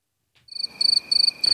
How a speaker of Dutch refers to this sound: Hier mag je die krekels. nu moet je even die krekels.